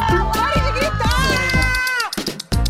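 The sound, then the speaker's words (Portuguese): A short, loud show jingle of layered, sung-sounding voices over a bright sustained melody, with crowd-like shouts mixed in, breaking into a few quick bursts before a final hit. “Aguarde, roda a vinheta.”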